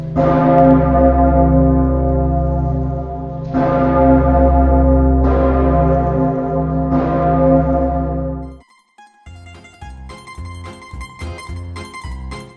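The massive Pummerin church bell, recast in 1951 from original pieces of the bell and from cannons kept in museums, tolls four deep, booming strokes a couple of seconds apart, each humming on into the next, before falling away into a lighter, busier ringing of higher tones.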